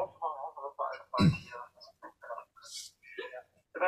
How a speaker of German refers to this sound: Wir müssen mal kurz die Bahnansage hören.